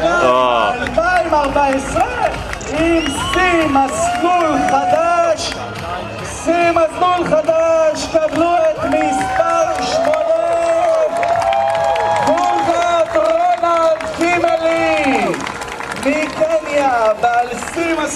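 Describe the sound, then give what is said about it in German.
A crowd of spectators and athletes cheers and shouts as the exhausted Kenyan winner of the Jerusalem Marathon finishes, many overlapping voices forming a loud, steady roar with bursts of clapping and raised calls throughout. “Er kam völlig erschöpft im Ziel ein unter dem Jubel der Athleten und der Zuschauer.”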